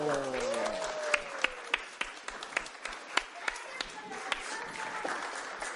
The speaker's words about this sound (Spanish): Y todos hicimos esa historia y por eso nos ganamos un aplauso.